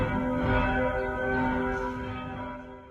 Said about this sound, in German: Am 1. August 2020 werden die maroden Eisenhartgussglocken von Altenhain das letzte Mal angeschlagen. 1951 waren sie in den Turm eingezogen.